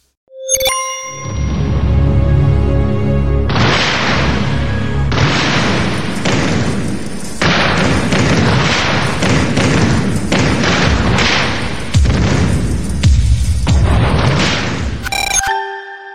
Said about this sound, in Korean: 기억나십니까? 뭔가 막 소리가 났는데요. 이게 네. 90년대 청춘 스타 이정원 씨가 바닥을 막 뛰다가 갑자기 의자를 발로 짚고 휙 넘어가는 이 광고입니다.